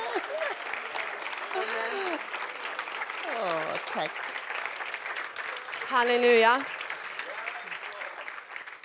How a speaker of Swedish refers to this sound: Jag tror att vi ska applådera för Herren, inte för mig.